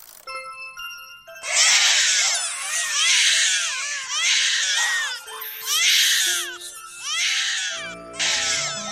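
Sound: crying sound effect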